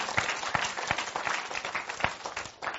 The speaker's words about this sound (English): And that is a great time for a ruckus clapping right there. Okay?